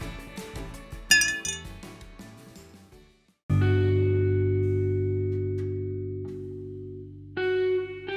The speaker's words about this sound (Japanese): じゃ乾杯しよっか牛乳で乾杯